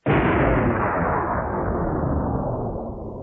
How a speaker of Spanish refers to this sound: ¿Escuchó ese sonido? Claro, ese sonido de una explosión.